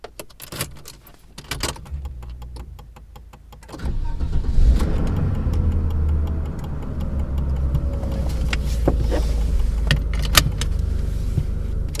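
Keys jingle and click for a few seconds, then a car engine starts and settles into a steady idling rumble that runs to the end. No one speaks.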